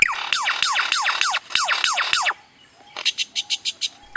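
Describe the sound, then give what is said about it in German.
A lyrebird imitates a lightsaber: about eight rapid, buzzy descending electronic zaps in a steady rhythm, then a brief pause and a run of short, bright pulsing tones. Fairly loud, no talking. “Ja, wir befinden uns jetzt nicht mitten auf einer Baustelle, auch wenn es so klingt, sondern das ist ein Leierschwanz, der eben genau diese Baustellengeräusche nachmacht. Er kann auch ein, ein Lichtschwert nachmachen.”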